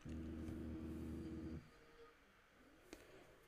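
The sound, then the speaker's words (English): A loud, buzzing alarm drones steadily for about a second and a half, then abruptly cuts off, leaving quiet room noise and a faint click. “Sorry, that was just my alarm.”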